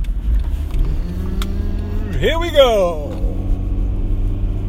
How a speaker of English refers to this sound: You can hear that old engine purring. Purr.